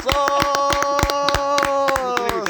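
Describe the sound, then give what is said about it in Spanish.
An audience claps steadily for a duo after a song, sharp hand claps landing in a quick, fairly even rhythm over a held, ringing musical note that fades slightly toward the end. “¡Aplausos!”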